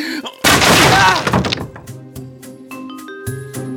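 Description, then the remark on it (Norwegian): A wooden chair is smashed in one loud, splintering crash lasting about a second, followed by scattered clatters and thuds of debris settling. “Håper ikke denne stolen er antikk.”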